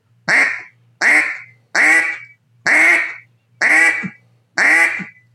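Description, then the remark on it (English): Six loud, drawn-out quacks blown with pressurized air on a duck call, evenly spaced in a steady rhythm, each a raspy nasal burst that tapers off, with no talking. “So that's a quack, extending a quack out.”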